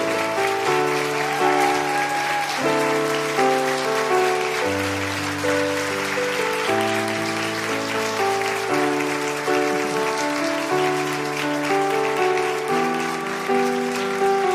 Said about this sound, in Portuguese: Mais palmas para todas as vovós, todas as vovós. Amor em dobro. Palmas, muitas palmas para os avós.